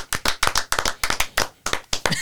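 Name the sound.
hand clapping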